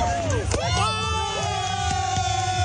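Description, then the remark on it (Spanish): A large crowd gathered in front of the Sky Tower in Auckland, New Zealand, for a New Year fireworks show cheers and shouts continuously, a dense roar of voices with rising whoops and whistles, plus a few sharp pops cutting through the steady din of celebration. “En Nueva Zelanda, Auckland, grandes multitudes se reunieron frente a la Sky Tower para presenciar un gran espectáculo de fuegos artificiales.”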